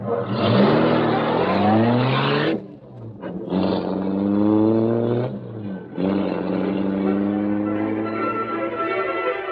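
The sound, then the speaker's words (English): The engine of the Black Beauty, the Green Hornet's car, roars loudly, revving in three rising bursts with brief pauses between, the pitch climbing each time as it accelerates away. “The great car roared into life.”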